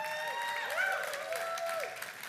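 A large crowd at Vibrant church claps and cheers steadily for its pastors, with whoops and rising shouts riding over a dense wash of applause that holds its level throughout.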